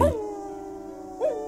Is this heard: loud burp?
no